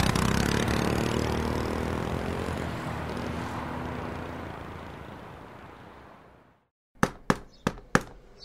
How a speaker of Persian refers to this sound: صبح فردا با صدای در زدنهای رومینا از خواب پرید کشان کشان به سمت درب رفت و کرکره را کنار کشید